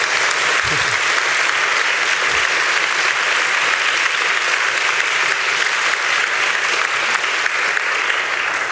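A large audience in a very full lecture hall at the University of Freiburg applauds steadily, a dense wash of clapping hands that stays loud and even throughout, with no voices rising above it.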